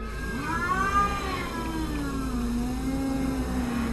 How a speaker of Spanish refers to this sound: En ese momento, la gata que tenemos hizo un ruido muy raro y se erizó.